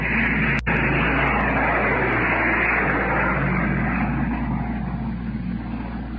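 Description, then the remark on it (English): A loud, continuous roar of military planes flying low overhead amid heavy anti-aircraft fire from warships, steady throughout, with one sharp crack near the start and no voices. “Now planes are going overhead.”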